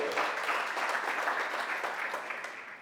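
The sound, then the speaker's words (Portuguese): A church audience applauds during a sermon at the preacher's request, a dense, steady wash of many hands clapping that holds strong for a few seconds before easing slightly toward the end, with no one speaking over it. “Ah, dá um aplauso aí, pelo amor de Deus.”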